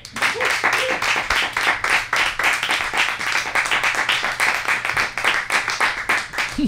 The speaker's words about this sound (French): Il faut, accueillir des prochaines invités qui vont venir en parler. On est très content de les avoir ce soir. Je vous demanderai, messieurs, dames, de les applaudir.